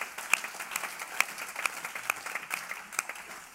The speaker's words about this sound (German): Ja, das ist ein Applaus wert. Ne? Unbedingt.